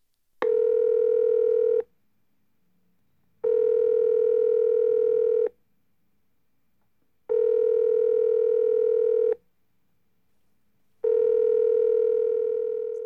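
A telephone rings on the line: four long, steady buzzing tones, each about two seconds, separated by even pauses of silence. Loud and clear with no voices.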